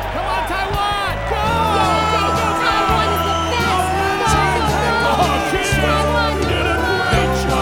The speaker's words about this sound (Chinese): 全场的侨胞热血沸腾的欢呼，伴随着激动的眼泪，共同见证了这个历史性的一刻。